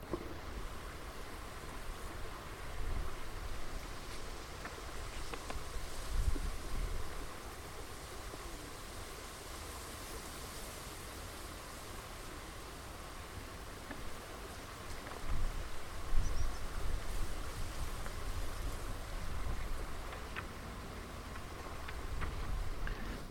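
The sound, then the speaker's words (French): Steady rushing water from a river confluence on the Rille, broad and continuous, with soft gusts of wind rustling through reeds swelling and fading at intervals. No voices, just an even outdoor wash of sound. “On ferme les yeux et on écoute cette confluence et le vent dans les roseaux.”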